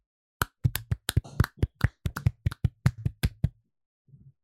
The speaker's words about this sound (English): And as we do at the end of every single bracket, we are going to clap it out.